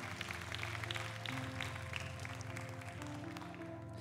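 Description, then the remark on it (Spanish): An audience applauds with steady, dense clapping for about four seconds, layered over sustained low musical tones like a held keyboard chord. No one speaks. “Dale tu mejor aplauso a ese rey que murió por ti.”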